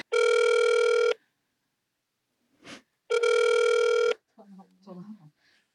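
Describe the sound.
Two long, steady electronic ringback tones about a second each, separated by a pause with a faint click, then a voice briefly answers as the line picks up, on a phone call placed from the Design FM show.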